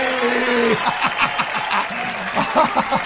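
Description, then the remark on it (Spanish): Steady applause from a crowd fills the whole few seconds, with someone laughing in bursts close up over the clapping. “¡Un aplauso ahí!”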